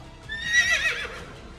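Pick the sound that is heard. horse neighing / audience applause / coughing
horse neighing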